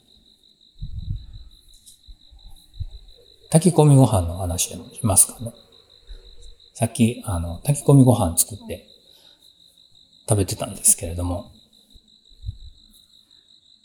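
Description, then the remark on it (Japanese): Steady, high-pitched cricket chirping, edited to emphasise the crickets' frequencies and suppress other noise, runs continuously through the whole recording as a background layer, while a man talks over it in several bursts. “コオロギの鳴き声をちょっと挿入してみたんですけれども”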